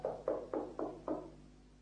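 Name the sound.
knocking on a door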